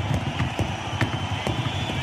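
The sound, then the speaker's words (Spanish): Two people, one a drummer, drum by hand on a wooden chair in a steady, rhythmic knocking, sharp hollow taps repeating about twice a second, fairly loud over a dense background hum. “Están tocando una silla, los dos.”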